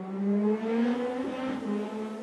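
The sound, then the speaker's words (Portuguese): A motorcycle engine revs loudly outside, its buzzing tone climbing and wavering for a couple of seconds with no pause and no voices. “O gajo da moto está chateado, meu.”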